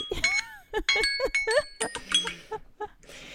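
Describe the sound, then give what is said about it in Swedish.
A bell rings out in a quick series of bright, ringing tones, fairly loud, with a faint voice or two in the background. “Klockan ringde.”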